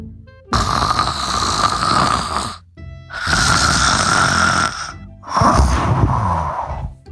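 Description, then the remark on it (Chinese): Three long, loud snores in steady succession from a sleeping little pig in a story, each a rough, rattling drone lasting about two seconds, separated by short pauses, with no talking. “花蛤蟆瞪着眼睡不着，他从来没有听见过这么响的呼噜。”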